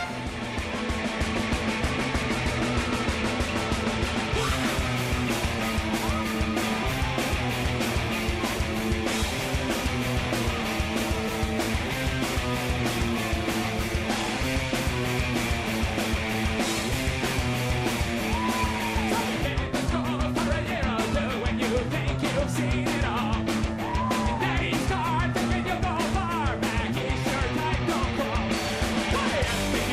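A loud, fast punk rock song plays throughout, with dense distorted guitars and rapid driving drum hits keeping a steady, unrelenting pace from start to finish, with no talking over it.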